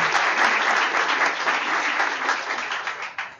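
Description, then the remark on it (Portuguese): Sustained applause from an audience at a law talk show event as a guest is invited to join the panel table, a dense wash of many hands clapping at steady loudness for a few seconds before tapering slightly at the end. “Uma salva de palmas.”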